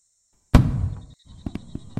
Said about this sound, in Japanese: 花火か